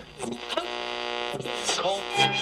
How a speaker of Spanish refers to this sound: mientras que nos trasladábamos de una a la otra y no teníamos presencia de señal de una radio, escuchábamos ese ruido molesto